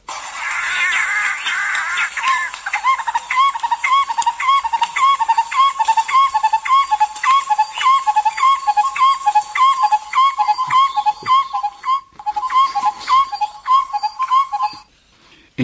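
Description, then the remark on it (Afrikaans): A bird that robs the eggs and chicks of the red-headed barbet calls in a long run of quick, repeated whistled notes, steady and rhythmic, fairly loud, with a rougher chattering burst at the start and no voices. “maar dan ook die eiers en kleintjies van die rooi kop houtkapper en hier is sy roep.”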